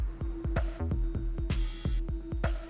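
A pet dog barks in a quick, steady series of about eight or nine short, sharp yelps over a low constant hum, with a brief hiss of noise midway and no talking.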